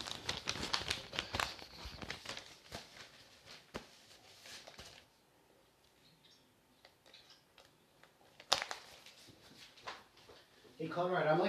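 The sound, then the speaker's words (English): Paper rustles and crinkles in a dense flurry of scratchy handling for several seconds, then quieter intermittent shuffles and one sharp crackle before a final burst of rustling. “the guy that shuffles the paper, but it's like, hey, when he's shuffling paper, it's pretty important.”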